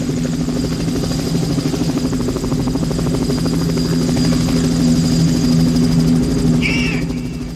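A helicopter's rotor beats in a steady, rapid chop with a droning engine hum, loud and close throughout, with a brief high chirp near the end.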